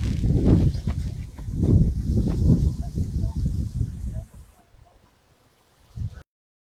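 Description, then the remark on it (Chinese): An outdoor field recording on the Gonghuacheng peninsula at Shahe: rumbling, uneven low thumps like footsteps or handling noise over a steady airy hiss, which fades to near silence before one last short bump. “刚才大家听到的是我在沙河的巩华城半岛录制的。现场的声音，其实也是希望嗯大家能够体会一下自然的声音。”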